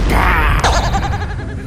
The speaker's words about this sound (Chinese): 希拉撞击了地面的时候，发出了一个轰天巨响。砰！